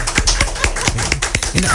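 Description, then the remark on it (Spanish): A small group claps live in a radio studio, not recorded applause, a dense run of sharp hand claps for a couple of seconds, with voices murmuring underneath. “Hasta los aplausos y fueron en vivo. Aquí no ponen aplausos grabados, ¿eh?”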